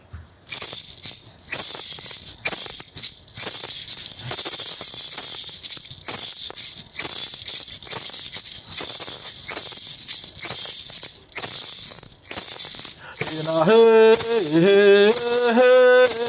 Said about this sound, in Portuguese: O maracá, pelo menos na cultura dos povos do Nordeste, ele é muito importante. E a gente pode ouvir algo dele?